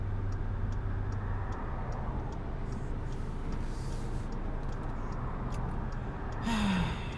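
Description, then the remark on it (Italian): A steady low road rumble runs throughout, then a car rushes past fast near the end, its noise swelling briefly into a louder hiss before fading. “Perché io devo fare un incidente perché un imbecille deve passare veloce?”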